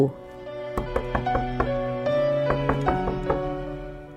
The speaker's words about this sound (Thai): ขณะที่ผู้ใหญ่อ่องกำลังหลับสนิท ก็ได้ยินเสียงนางลูกสะพ้ยทั้งร้องตะโกนเรียกทั้งทุบประตู